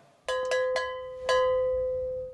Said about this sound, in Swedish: Jag, vänta, jag med, vi slänger in en sån här kling här. Ni, ja. ni hör.